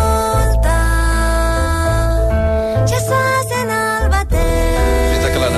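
A steady, full-band stretch of recorded music from a new album, with sustained harmonic tones, a deep bass line and brief percussive accents, playing loudly throughout without any talking.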